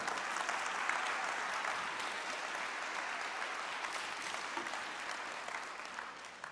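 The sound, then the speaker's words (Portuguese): Sustained applause from a crowd, a dense steady wash of many hands clapping at an even, fairly loud level throughout, with no voices standing out. “E se eu fosse você, eu bateria palmas mais tempo.”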